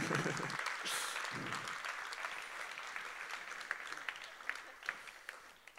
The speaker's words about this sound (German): Ihr kriegt schon mal jetzt einen Applaus, weil ich weiß nicht, wie die Bilder sind.